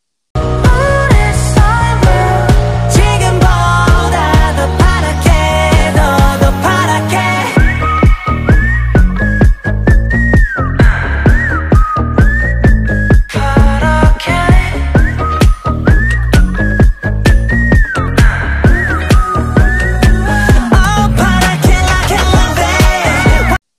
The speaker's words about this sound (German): Und mein nächstes Lied ist … von ….